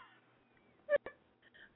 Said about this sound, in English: Bless you.